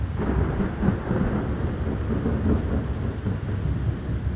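A violent storm at sea off the coast of Spain in the early afternoon roars without pause as an oil tanker moves slowly into a violent wind. Heavy wind and very rough, churning water with rising waves form a loud, deep, steady rumble, with no voices.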